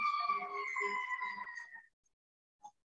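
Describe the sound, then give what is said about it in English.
An emergency vehicle siren outside wails with a sustained, gliding tone that fades out after about two seconds, followed by quiet and a brief faint click. “Amidst the siren, amidst what may be the sirens of the mind.”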